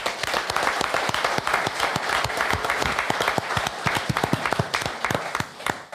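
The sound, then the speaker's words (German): A crowd gives a big round of applause for the audience, clapping steadily for about six seconds. Many overlapping claps form a dense, even patter with sharper individual claps standing out, tapering slightly at the end. “Und natürlich von Use Stelle nochmal einen ganz großen Applaus von Usfeier an das tolle Publikum Jawohl.”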